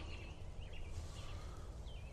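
A distant train rumbles low and steady in the background, faint and continuous, while a few birds chirp softly over it in an otherwise quiet outdoor setting.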